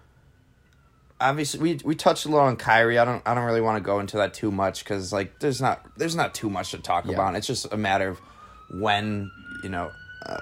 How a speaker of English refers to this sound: I don't know if you guys can hear that police siren in the background.